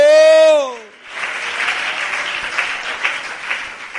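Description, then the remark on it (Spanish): A single voice holds a loud, slightly falling note, then a crowd breaks into steady, dense applause for God that continues evenly for about three seconds. “Dele ese fuerte aplauso a ese Dios maravilloso.”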